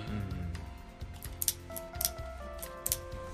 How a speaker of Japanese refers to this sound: うん、ペン壊しちゃった